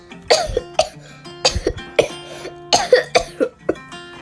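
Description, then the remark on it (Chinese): A voice imitates a string of coughs, roughly seven or eight short, harsh bursts in irregular clusters with brief pauses between them, moderately loud and with no talking. “就这样子咳嗽”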